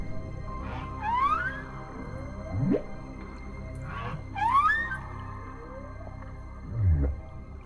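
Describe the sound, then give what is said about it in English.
Whale song with long rising and falling tonal calls, a pair of swooping upward cries and deeper groaning moans, echoing and resonant, heard alone without any talking. “In fact, if anyone is watching the movie, make sure you stay for the credits because instead of rolling score, you just roll whale song for the whole like six or seven minutes of credits, and it's absolutely beautiful.”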